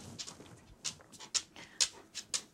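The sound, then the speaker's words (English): A dog pants in quick, breathy bursts, about two per second, with faint whimpering mixed in. The sound is fairly quiet, and no one speaks. “a dog. I'm surrounded by the humans. Okay, go sit down, buddy.”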